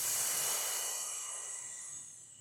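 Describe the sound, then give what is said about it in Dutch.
A long, steady hissing exhale pushed through the teeth with the tongue pressed against the front teeth, like a snake, during a breathing exercise, fairly loud at first, then slowly tapering off over a couple of seconds, with no talking. “Dus je drukt je tong tegen je tanden aan, je voortanden. je maakt een geluid zoals een slang.”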